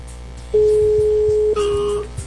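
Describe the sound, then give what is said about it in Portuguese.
A telephone ringing tone as a call is placed from a radio show: the tone hums steadily for about a second, then shifts to a second tone with a brighter, higher edge for half a second, over a faint background murmur. “Atenção, já tá chamando.”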